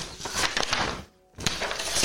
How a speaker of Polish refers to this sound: jeśli dobrze pamiętam tytuł i teraz zaszeleszczę kartką, żeby sprawdzić.